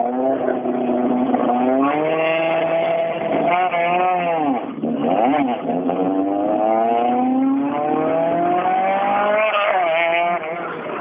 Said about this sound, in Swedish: Ja, det är riktigt härligt att få höra motorljudet in här till studion. Det finns ett par stycken 240 Grupo i Sverige.